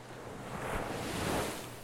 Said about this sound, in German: da sah sie es vor sich. Das Meer. Wasser soweit sie sehen konnte,